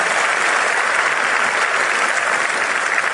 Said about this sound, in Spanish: ¿Quiénes de aquí están en su primer convención? ¡Wow! Demos de un fuerte aplauso a todos ellos.